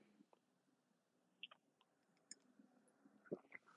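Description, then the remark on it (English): Someone takes a few small sips of tea: soft slurps, faint clicks of a cup and a quiet swallow amid near silence, with no talking. “and man, this is, let me sip a little bit of my tea.”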